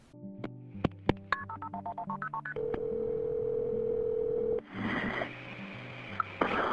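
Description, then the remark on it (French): A rapid run of about a dozen telephone keypad tones in quick succession as a 911 emergency call is dialed, followed by a steady electronic line tone lasting a couple of seconds, then hissy phone-line noise. No one speaks. “L'appel du 911 le témoigne.”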